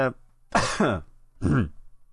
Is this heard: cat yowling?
no